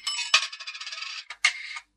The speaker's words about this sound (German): Was klickt denn da so? Ich stehe in einer Telefonzelle. Mein Geld ist gleich durchgelaufen.